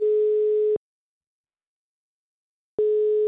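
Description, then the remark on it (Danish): An outgoing phone call's ringback tone, calling the wine shop Vinoble in Vejle: a steady, clear electronic beep that sounds briefly, falls silent for about two seconds, then starts again, with no voices. “Men øh, skal vi så ikke øh, ringe til en vinhandler i jo, Vejle?”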